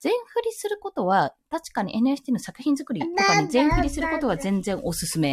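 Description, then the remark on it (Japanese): A woman talks steadily while her young son's voice chimes in faintly in the background, brief high-pitched vocalizations mixed under her speech. “ごめんなさい、ちょっと息子の声が入ってるんですが”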